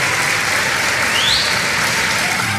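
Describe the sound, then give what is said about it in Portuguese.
Steady, dense applause from many hands clapping at once, a continuous loud crackling wash with no pauses and no voices standing out. “Essas palmas aqui, viu,”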